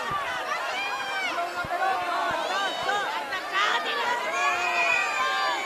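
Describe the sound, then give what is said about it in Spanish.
A dense parade crowd beside Balthasar's float in a Three Kings parade, as it reaches the Glorieta del Cid, roars without pause, many high-pitched voices, mostly children, shouting and calling over one another, with a few sharp knocks scattered through the din. “Yo estoy justo debajo, como te decía, de patero, de patero derecho, de la carroza de Baltasar, que alcanza ahora mismo la glorieta del CID.”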